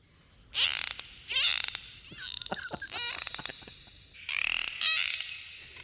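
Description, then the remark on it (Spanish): Dolphin sounds from the Epidemic Sound effects library: bursts of rapid clicking and creaky, squeaky whistles, high-pitched and fairly loud, coming in several clusters with short gaps, with no speech over them. “Esto es, esto, ¿Dónde, esto ruido es un delfín?”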